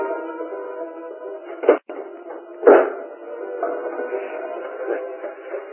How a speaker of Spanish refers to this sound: Sin perder tiempo colocan los gruesos aldabones y la pesada tranca que materialmente cierra aquella puerta herméticamente.